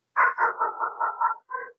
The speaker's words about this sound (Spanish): Te escuchamos al perro igual, weón.